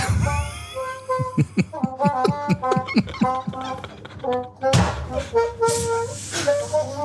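A solo horn plays a lively melody, close and fairly loud, moving from short, punchy notes into longer held tones with bright, brassy overtones.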